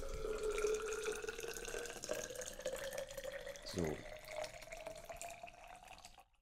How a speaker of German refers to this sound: ich kann inzwischen schon hören, wann die Kanne voll ist, sozusagen. Ich muss anhand des Füllgeräuschs.